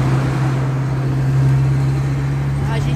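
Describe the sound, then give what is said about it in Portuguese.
Steady, loud roar of road traffic with a strong low engine hum throughout, as cars rush past fast on a busy marginal expressway; a faint rising whine from a passing vehicle near the end. “É que a gente está na marginal aqui, uma, uma Aqui o pessoal passa ventado aqui nervoso com a gente.”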